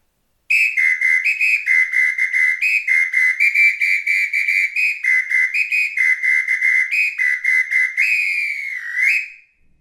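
A shrill three-tone samba whistle (apito), used by a samba drum section leader to direct the musicians, blows a rapid rhythmic pattern of short bursts, stepping between pitches, ending in a longer warbling trill. Loud and alone, with no voices.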